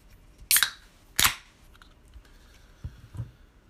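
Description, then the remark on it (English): A bottle of very hoppy beer, made with Amarillo and Simcoe hops, has its cap pried open: two sharp, bright hissing cracks in quick succession, followed by a couple of soft, low thumps, with no one talking. “So let's crack this baby open.”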